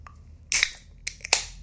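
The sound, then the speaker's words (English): A can of Guinness beer being cracked open and spraying out: a sharp metallic snap with a short fizzy burst, then two quicker clicks a moment later. No one speaks. “crack, crack open a beer.”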